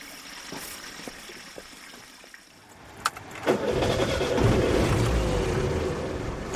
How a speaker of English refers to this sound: We load into Professor Andreas Hemp's battered four wheel drive and climb another 2,600 feet into the forest.